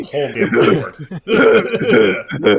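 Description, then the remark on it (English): Loud coughing in two rough bursts with a short pause between, the harsh throat sounds mixed with strained, voiced vocal noise. “just coughed over the”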